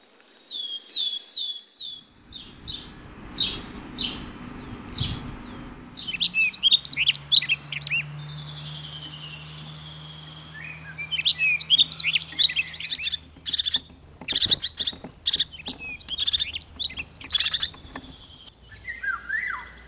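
Birds sing throughout in bright, high chirps and rapid trilling phrases, several songs overlapping, with a low steady hum underneath and brief low rumbles. No one speaks.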